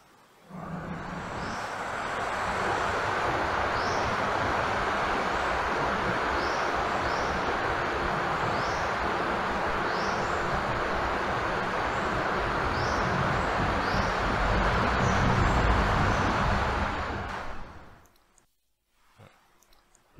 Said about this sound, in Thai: หมายถึงว่าเสียงมันถ้าเรานั่งอยู่เนี่ยไม่รู้สึกเลยว่าพัดลมมันเสียงดัง แต่พอนั่งเงียบๆแล้วรู้สึกว่ามันเสียงดังแล้วดังอาตมารู้สึกว่าขำๆดังแบบขำๆเหมือนเนี่ยลองฟังนะ ลองเงียบๆฟังดูนะ